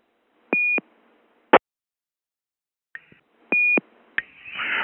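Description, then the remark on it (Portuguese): Short electronic beeps from a radio repeater after an asterisk command is sent: a steady tone framed by clicks, a sharp click, then another boxed tone and a burst of static noise trailing off at the end. “Manda o asterisco aí.”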